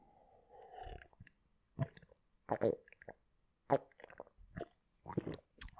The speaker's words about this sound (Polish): Chciałem, żeby było słychać to gulgotanie w gardle.